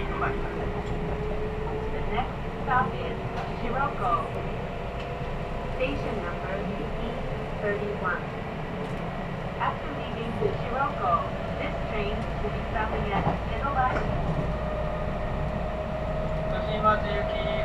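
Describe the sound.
Steady low rumble of a Kintetsu train stopped at a station while a limited express passes, with a faint whine and clatter, while indistinct voices murmur underneath throughout.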